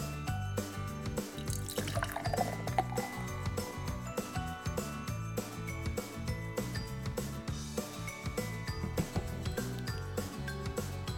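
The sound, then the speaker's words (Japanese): Regular Black Label beer from a freshly opened can pours steadily into a glass, a continuous gurgling and fizzing stream that runs for about ten seconds with no voices. “じゃあ、ついでいきますね。”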